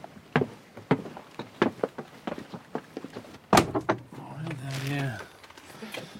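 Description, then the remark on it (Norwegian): A steady run of hollow footsteps as people go out a door and down into a small cellar storeroom, then a sharp door knock or thud followed by a long, groaning creak, with faint voices murmuring in the background. “skysser oss ut døra og ned i ei lita kjellerbod.”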